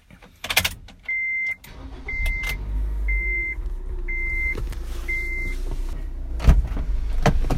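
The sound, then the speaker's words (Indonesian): A car parked in front of a house is started: a few clicks, then five evenly spaced electronic chimes as a low, steady engine rumble builds and settles into idle, with no talking. “By the way, kalau mobil matiin panas juga kali ya. Nyalain aja kali.”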